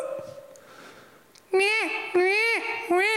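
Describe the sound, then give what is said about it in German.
A baby cries in three loud, piercing wails, each swelling and falling in pitch, following a brief quieter stretch with faint background sound. “So hört sich an, liebe Nicht-Eltern, wenn das Kind dann schreit.”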